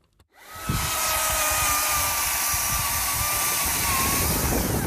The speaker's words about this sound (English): As I pull into the parking lot at the Mesa Christmas Tree Farm in Balmoral, owner Mike Fiala is hard at work, chopping the bottom off a line of Christmas trees.